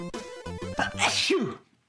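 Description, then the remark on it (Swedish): A single loud sneeze: a voiced intake building into a sharp, breathy burst that trails off quickly into silence. “Prosit! Är du allergisk mot tv-spel?”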